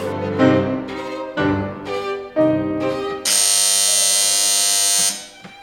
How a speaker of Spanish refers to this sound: corre a ver quién ha tocado el timbre.